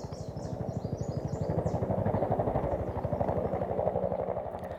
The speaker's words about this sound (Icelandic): Það voru líka þyrllur sveimandi fyrir ofan, herir Babilóns.